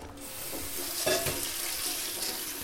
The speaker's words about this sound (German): die geben wir jetzt mal in einen Sieb und spülen sie bitte kurz unter fließendem Wasser ab